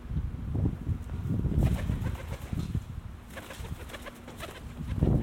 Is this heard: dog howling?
no